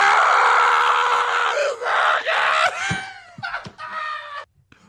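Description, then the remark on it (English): A played audio drop of someone yelling the name Donovan Raiola: a loud, strained human scream held for several seconds, harmonically rich and raw, then breaking into shorter cracked yelps before cutting off abruptly. “Do you know how many times I've thought of this drop from when you yelled Donovan Raiola?”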